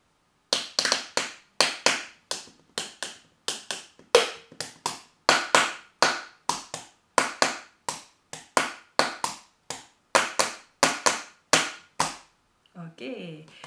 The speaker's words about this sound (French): On peut inventer des rythmes avec ça. On peut encore euh, faire plein d'autres choses avec ce gobelet.